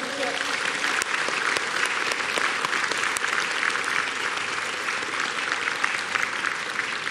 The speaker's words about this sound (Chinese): 我要借这个机会，邀请我们所有在场的来宾，以热烈的掌声，向这些国家的代表致上我们最深的感谢。